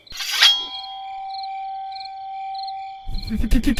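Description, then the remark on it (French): A sharp metallic clang of a sword blade, loud, leaving a bright, steady ring that hangs for about two and a half seconds before someone starts speaking. “lorsqu'il le retrouva, pointa sa lame vers lui.”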